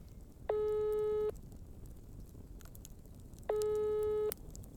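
A phone ringing twice on the line as someone calls a contact's number: two steady electronic ringback tones about three seconds apart, each lasting under a second, over a faint hissy background with no voices, before the call is answered.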